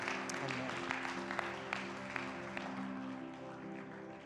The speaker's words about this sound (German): Lass uns dem Heiligen Geist mal einen riesigen Applaus geben. Unser Gott ist hier und er ist herrlich. Amen.